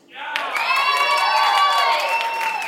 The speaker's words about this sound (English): Let's see if you clap the next one.